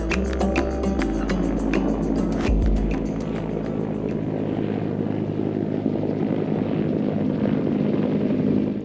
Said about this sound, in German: Über dem mehrstöckigen Containerbau kreiste dröhnend ein Helikopter, auf dessen Metallhülle groß das Logo des Senders prangte, für den die Crew und die Reporterteams im Bauch ihres Fluggeräts arbeiteten.